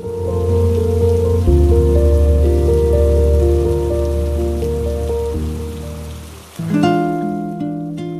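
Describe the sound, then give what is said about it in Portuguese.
Steady rain patters on a surface, a continuous hiss of drops blended with sustained musical tones that shift chords partway through, with no one speaking. “Você que tem medo de chuva, você que nem é de papel.”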